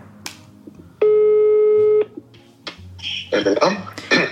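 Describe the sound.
A phone call being placed to a family home: a clicky tap or two, then a steady electronic tone lasting about a second, followed by a rustle and voices talking over the line in Swedish.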